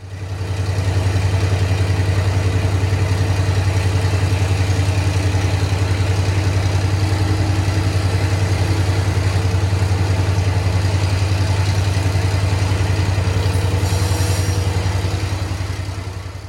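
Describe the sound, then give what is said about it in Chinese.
A diesel-burning diesel-electric locomotive hauling old Fuxing-type carriages runs steadily, recorded from inside the first carriage: a loud, continuous low engine drone with a rumbling hum and rattling noise on top, and a brief hiss near the end. No one speaks. “接下来，我们来播放一小段烧柴油的柴电机车头行驶的时候所发出来的声音，大家可以来好好的感受一下。”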